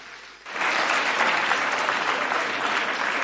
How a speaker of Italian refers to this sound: Siamo pronti per cominciare questa ventunesima edizione di Religion Today Film Festival? Non vi ho sentito ragazzi, Oh, vi devono sentire anche da casa, dai un bel applauso che è cominciata.